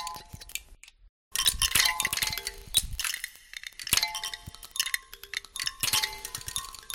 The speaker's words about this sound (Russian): Так звучит лед в ледяной пещере глубоко в горах на острове Шпицберген.